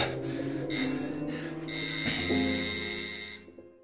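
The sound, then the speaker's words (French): A doorbell is rung late at night, ringing steadily for a few seconds, a bright, buzzing electric tone that swells and stays fairly loud, with no voices. “Na und? Wir klingeln.”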